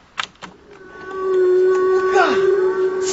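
A whale call: a long, steady tonal moan that holds its pitch, then a descending swoop near the end. Two sharp clicks come first. It is fairly loud.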